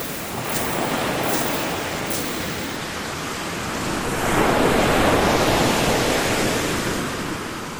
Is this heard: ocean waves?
yes